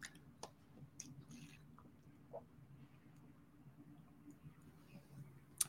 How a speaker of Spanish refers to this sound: Y déjeme tomar tantita agua porque hace sed, espérese.